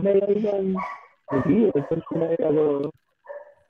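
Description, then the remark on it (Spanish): A female dog named Lola barks and yowls in a few drawn-out, tonal bursts, with a brief pause before a softer final yelp. “Ese perro no era mío.”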